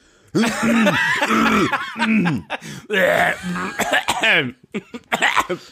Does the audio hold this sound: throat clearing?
yes